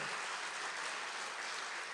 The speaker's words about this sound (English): Give the Lord a clap.